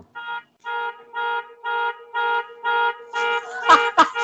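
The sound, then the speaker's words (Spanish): A misconfigured alarm going off outside blares in short evenly spaced bursts, about seven pulses, rich in harmonics, followed by a couple of sharp bangs near the end; no one speaks. “Hay un weón que tiene, tiene su alarma mal configurada.”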